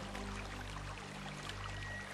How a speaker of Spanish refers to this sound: Contemplo sus formas y admiro el modo en el que el agua fluye constantemente por todos sus canales. Me conecto con el sonido del agua danzando por las distintas salidas de la fuente.